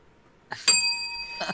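bell ringing

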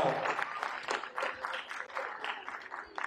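loud audience applause

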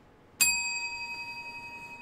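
bell ringing

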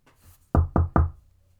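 knocking on a door

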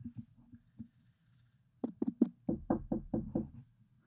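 knocking on a door

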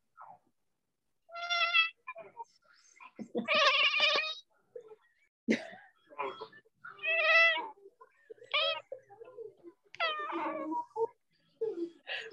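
cat meowing

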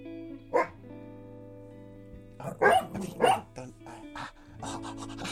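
dog barking and growling

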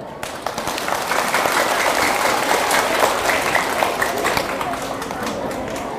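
loud applause

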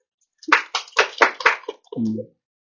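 audience clapping

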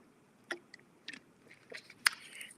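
sipping a drink

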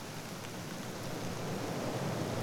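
rain and wind

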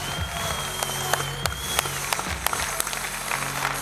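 audience clapping

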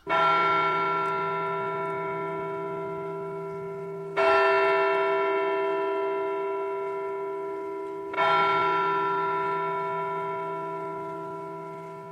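church bell ringing

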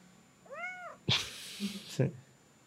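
cat meowing

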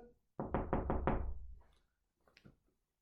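knocking on a door

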